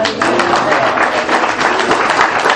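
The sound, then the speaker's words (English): An audience at a worship service, asked to give praise to God, gives a polite, golf-style round of clapping: a steady, even patter of many hands lasting a couple of seconds, with no cheering or distinct voices. “I'm not looking for a golf clap this morning.”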